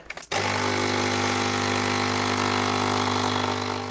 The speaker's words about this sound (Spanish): El sonido de la cafetera, el aroma que deja en el ambiente, sentir en las manos el calor de tu taza favorita cuando agarras un café y dices, venga, vamos al lío, a trabajar.